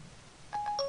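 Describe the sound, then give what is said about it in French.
A phone dials out by voice recognition: after a moment of quiet background hum, a quick burst of electronic dialing beeps and steady tones sounds, brief and clear, with no one speaking. “tu vois, moi je suis un citoyen responsable, donc si je dois composer un numéro de téléphone, je m'arrête sur le bas côté.”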